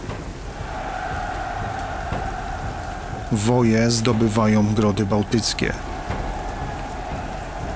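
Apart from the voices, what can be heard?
rain falling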